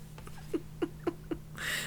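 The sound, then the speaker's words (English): A toy cat piano plays four short, evenly spaced squeaky meow notes, fairly quiet, ending in a brief burst of hissing noise. “Well, I, I hope to talk to you guys next week as long as this cat piano doesn't murder me in my sleep.”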